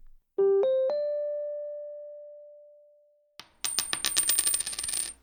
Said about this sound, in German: Kopf oder Zahl. Wer eine Münze wirft, geht davon aus, dass beide Ergebnisse gleich wahrscheinlich sind und der Zufall entscheidet.